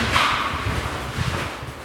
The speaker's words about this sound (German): Sag mal, warum quietschen deine Schuhe eigentlich so? Ich weiß es nicht. Das tun sie auf diesem Belag irgendwie immer.